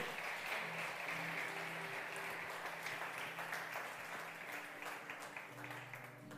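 An audience applauds God strongly during a church service, clapping steadily for several seconds, a dense wash of clapping from many hands filling the room, with faint background voices and a low sustained musical tone underneath.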